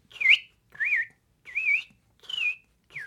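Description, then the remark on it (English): A person whistles an imitation of robin song: five short, bright, warbling phrases in a steady rhythm, each a rising-and-falling high note separated by brief pauses, with no talking. “Yes, it is the Hi! robin.”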